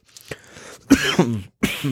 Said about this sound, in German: Das wird immer schlimmer mit dem Husten.